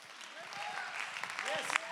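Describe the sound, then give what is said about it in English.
An audience claps steadily in praise of God, a dense, continuous patter, with voices rising and falling through the noise and a few sharper claps standing out near the end. “Somebody clap your hands, lift your voice.”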